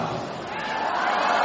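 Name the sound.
audience applause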